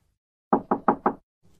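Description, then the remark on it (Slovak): Four firm, evenly spaced knocks on a door ring out clear, followed by a brief pause and a faint, soft shuffle. “Pán Ježiš hovorí, ja stojím pri dverách a klopem.”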